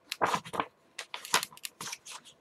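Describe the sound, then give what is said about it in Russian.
Crisp paper rustling as a book by Gladwell, of about 450 pages, is handled, a series of short, dry crinkling bursts with brief pauses between them, fairly quiet and with no voices. “Вот у меня есть книжка. В ней есть определенное количество страниц.”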